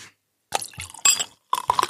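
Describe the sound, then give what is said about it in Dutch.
Champagne splashes into a glass in a few uneven bursts, fizzing and crackling, with faint glassy ringing between the pours and a brief pause near the start. “Hoor je, hoe het bruist? Ik hoor hoe het bruist. Het glas klinkt eh, prachtig.”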